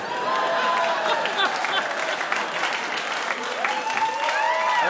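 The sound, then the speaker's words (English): A public radio studio audience applauds steadily, a dense wash of clapping that holds at full strength throughout, with a few scattered cheers and whoops rising above it. “That is a public radio audience.”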